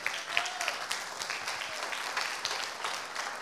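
audience applause

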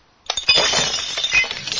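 glass breaking sound effect

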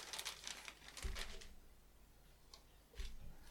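crinkling packaging

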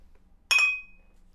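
bottles clinking together

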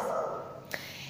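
small dog barking

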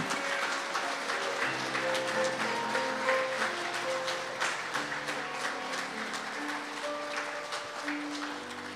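audience clapping

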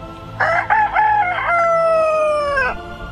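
rooster crowing

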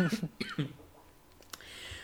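coughing and throat clearing

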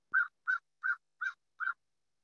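bird calling outside

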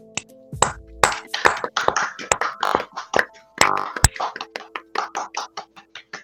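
hands clapping in applause

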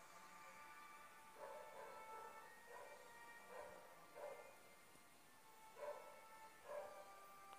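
dog barking

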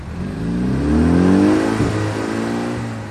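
car engine revving

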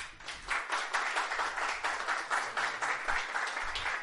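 audience applause

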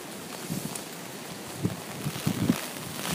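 wind blowing outdoors

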